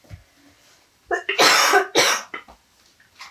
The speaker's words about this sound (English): My goodness, excuse me. So you have like a, a health issue or something? I'm just on the tail end of a cold and I'm so prone to like that oh. dry cough.